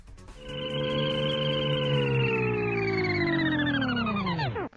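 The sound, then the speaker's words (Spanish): A sustained, harmonically rich synthetic hum, imagining the sound of a flying car, swells in and then slowly glides downward in pitch before cutting off abruptly, like a sci-fi vehicle powering down. No voices are heard. “te vas como tu auto volador ¿Cuándo estarán disponibles los autos voladores?”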